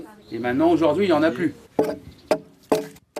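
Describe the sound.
A voice talks briefly, then an axe strikes wood in a series of sharp, solid chops, four blows at uneven intervals, each a crisp thwack with a short ringing tail, as a Ukrainian refugee shaves a wooden plank smooth with the axe, preparing boards for a grain mill at a building site.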